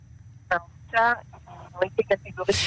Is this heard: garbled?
yes